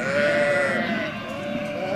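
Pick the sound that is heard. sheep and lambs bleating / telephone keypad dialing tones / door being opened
sheep and lambs bleating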